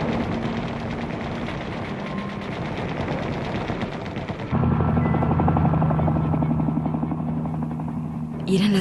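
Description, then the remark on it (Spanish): A helicopter emitting a green flare over a rally at Tlatelolco in the evening; its rotors thud in a rapid, steady chop with a low engine drone, growing noticeably louder and heavier about halfway through as it passes overhead. “seis y diez de la tarde y de pronto, mientras el equipo de sonido divulgaba otra exhortación, rayó el cielo el fenómeno verde emitido por un helicóptero.”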